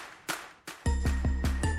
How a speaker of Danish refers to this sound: så er der sådan en stor produktion, og så er der sådan en eller anden 80'er melodi klokke